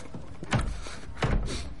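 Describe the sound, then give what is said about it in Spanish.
Víctor closes the laboratory door: two dull thuds less than a second apart, the second like the latch catching, over a quiet steady background with no one talking. “Sale al apartamento y cierra la puerta del laboratorio.”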